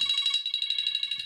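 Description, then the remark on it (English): A phone rings with a loud, shrill electronic trill, a rapidly warbling high tone that continues steadily throughout, with no one speaking. “I'm sorry, that's a phone call.”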